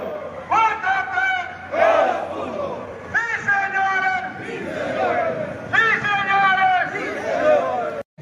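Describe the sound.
A large crowd roars and shouts in loud, chant-like waves, three big surges swelling and fading over a constant babble of voices.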